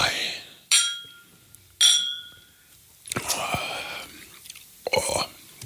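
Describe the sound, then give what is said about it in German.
Quiet swirling of a drink in a glass. Two bright glassy clinks ring out first, followed by a soft, breathy swishing of liquid circling inside. “Ich drehe ihm noch einmal durch Glas.”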